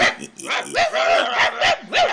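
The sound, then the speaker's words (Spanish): Several dogs bark loudly and excitedly outside in quick, overlapping bursts, some yips and whiny pitch swoops mixed in, continuous throughout. “Se escuchan afuera fuertes ladrillos. Entra el ama arrastrada por los perros”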